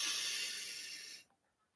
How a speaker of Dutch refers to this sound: Dus je, je ademt dan diep in en elke keer op de uitademing, als je die een klein stukje verlengt, dus dan, dat zou ongeveer zo klinken, dus je ademt in.